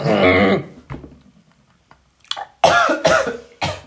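A person coughs and sputters after inhaling beer foam while pouring more beer that foamed heavily: a loud rasping burst, then a quiet gasp, followed by three more harsh, wet coughs in quick succession.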